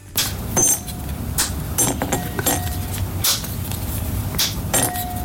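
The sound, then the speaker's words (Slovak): Sharp, crisp snaps of chocolate bars being broken, one after another in an irregular series of bright cracks, with faint crinkling of wrappers between them and no talking. “Vymysleli ju švajčiari, ktorí sú zároveň jej najväčší milovníci, no a takto nejako to znie, keď človek láme jednu tabličku po druhej.”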